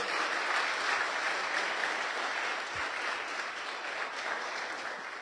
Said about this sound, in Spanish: Podemos tener algo de música, los que quieren salir pueden hacerlo y con el resto, sí, un aplauso para ellos.